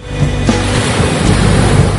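Ocean waves wash steadily onto a shore, a continuous loud rushing surf with faint swells and no voices, filling the whole stretch like beach ambience.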